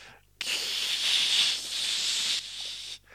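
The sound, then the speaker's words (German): A voice imitates a car tire spinning on a meadow wet with morning dew as the car, with a trailer hitched, tries to drive off: a steady, breathy hiss held for about two and a half seconds, briefly dipping near the end before cutting off, with no other sounds. “und sehe, wie sich der Reifen da unten durchdreht.”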